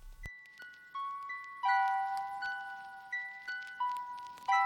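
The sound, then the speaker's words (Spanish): The intro of a very long, six-minute song opens with a slow sequence of clear, bell-like notes that ring and fade one after another, layering into a gentle, sustained chime melody with no voices. “…, canción larguísima de seis minutos. Eh, bueno, suena así y la comentamos.”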